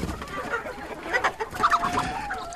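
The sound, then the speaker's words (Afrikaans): Several chickens cluck in a busy, overlapping chatter, with short clipped calls and a few higher squawks rising over a steady background murmur, as the hens hurry to the wire fence of a backyard chicken coop to be fed. “En dan kom die hoenders vinnig nader na die draad toe.”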